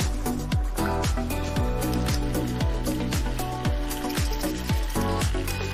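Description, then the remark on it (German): A thick sauce made with vegetable broth bubbles in a pan as it thickens and is brought briefly to a boil. Deep, regular blooping plops come about twice a second over a constant simmering hiss, loud. “Das ist ein bisschen sehr blubberig.”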